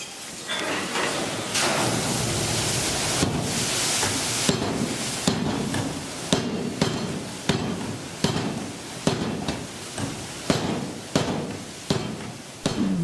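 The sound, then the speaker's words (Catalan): Heavy, regular hammer blows ring out from a Catalan forge, each strike a sharp metallic impact over a steady roaring, rushing background, the pounding growing more distinct and rhythmic toward the end. “És només una maqueta silenciosa a la sala d'exposició de Baimanya, però escoltem uns segons els sorolls d'una farga catalana.”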